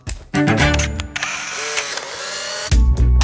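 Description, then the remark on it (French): Camera shutters click and clatter in quick bursts, with mechanical winding sounds and a steady musical tone underneath, ending in a loud pair of thumping clicks. No one speaks. “Chaque photo a son histoire.”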